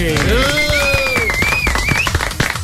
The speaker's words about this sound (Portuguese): Senhoras e senhores, com uma salva de palmas da bancada, o campeão do Rally Dakar, Gustavo Gugelmin.